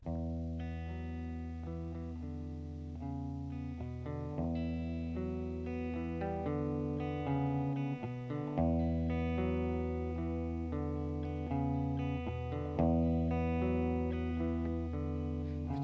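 A loud, wordless rock passage driven by thick distorted guitar, with sustained chords and a heavy low end shifting every few seconds, playing continuously without any voice.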